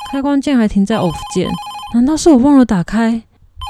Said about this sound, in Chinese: 电话声又响起，被吵醒的我头昏昏沉沉的。